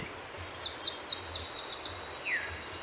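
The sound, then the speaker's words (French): A Nashville warbler sings a quick run of high, sweet repeated notes followed by a single lower slurred note, heard clearly on its own against a quiet outdoor background, at its summer spot by a marsh and crescent-shaped lake with poplars. “Et c'est là, juste là, que la paruline à jeu grise s'installe pour l'été.”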